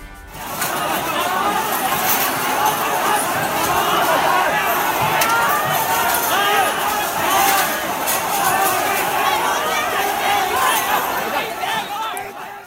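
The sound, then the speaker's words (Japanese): A large crowd of protesters at a 2019 Hong Kong demonstration shouts and chatters together in a dense, continuous roar, many voices overlapping at steady loudness throughout, with no single speaker standing out. “えー、とこれはですね、はい、去年の,、あのデモの現場で、うんうん、えー、デモ隊の人たちがあの、まあ、叫んでいる時の音です、うんうんうんこれ、去年というのは2019年ですね”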